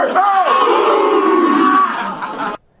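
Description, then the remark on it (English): A group of players roar the 'club dub' chant together in a locker room celebration, a loud, sustained collective yell lasting over two seconds, then it cuts off abruptly into silence. “So yeah, for those who don't know, they do the club dub thing in the locker room.”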